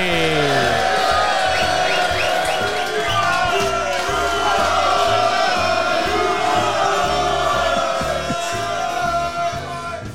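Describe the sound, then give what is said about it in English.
A live studio audience at the Half Moon in Putney cheers and whoops loudly for about ten seconds, a dense roar of many voices with scattered high shouts rising above it, easing off slightly right at the end. “And today we're in front of a live studio audience here at the Half Moon Putney.”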